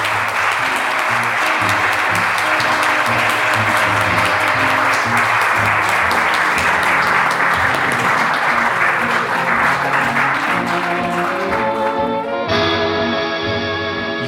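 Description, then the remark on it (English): A sustained round of audience applause, dense and steady clapping from a large crowd for about twelve seconds before fading as music takes over near the end. “Please join me in thanking Alexis Bugini.”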